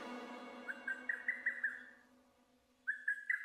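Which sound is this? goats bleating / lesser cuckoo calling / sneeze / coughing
lesser cuckoo calling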